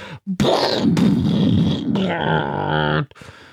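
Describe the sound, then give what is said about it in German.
A voice imitates cannons striking beside them with a loud, rough, roaring boom that trails into a strained, sustained vocal tone, lasting about three seconds, while a pedal tractor is rocked wildly from side to side. “wackelt den Trettrecker wild nach rechts und links und macht Geräusche, als würden Kanonen neben ihnen einschlagen.”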